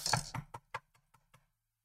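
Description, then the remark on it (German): Someone raps on a door in a quick run of about seven knocks, sharp at first, then growing softer and more spaced out before stopping. No one speaks. “Na, ich gehe mal zur Tür und gucke.”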